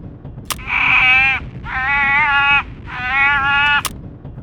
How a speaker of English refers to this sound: Yep, that's definitely a harbor seal pup. A hungry one from the sound of it.